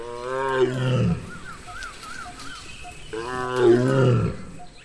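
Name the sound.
tigress roaring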